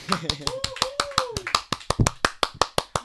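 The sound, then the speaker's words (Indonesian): A quick, steady run of about sixteen sharp hand claps in even rhythm, with a voice speaking over the first half before the clapping continues alone. “jadi wih tepuk tangan deh”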